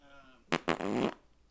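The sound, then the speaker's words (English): A voice blows a loud, raspy raspberry imitating a fart, a short burst followed by a longer sputtering blat lasting about half a second. “dropping a bomb, which is an entendre Taking a for big old pooping.”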